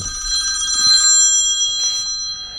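A telephone rings with a steady electronic trill, bright high tones sustained across the whole moment, clear with no voices over it.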